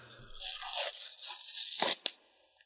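A paper envelope containing a letter with a Department of Defense seal is torn open in one continuous ripping pull, crackly and dry, ending with a couple of sharp final tears and a brief rustle.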